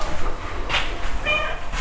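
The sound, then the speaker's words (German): A male cat cries out twice for food as a bowl of dry cat food is put down: a short high-pitched meow followed by a slightly longer, wavering one, over a low background rumble with no talking. “da schreit er schon.”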